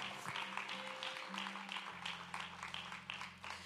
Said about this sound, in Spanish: Dale un aplauso fuerte, sabiendo que ya lo que Dios te ha dado, eso viene, eso viene, eso viene.